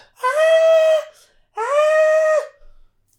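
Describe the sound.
A voice mimics children's shrieking with two loud, sustained high-pitched squeals, each about a second long, separated by a brief pause.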